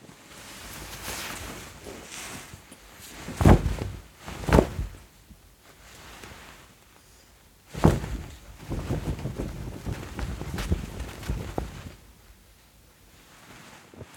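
Gabardine, a thin, smooth-surfaced trouser fabric, is rubbed and handled, giving crisp, scratchy rustles with a few sharper swishes and a steady rasping stretch as its fibers scratch against each other, no voices.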